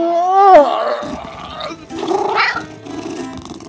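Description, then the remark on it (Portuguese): A drawn-out, strained vocal groan rises and then sags, like a cat stretching, followed by rougher, gargly moans; a human voice imitating the sound, fairly loud. “eu dou aquela esticada, sabe, de gato?”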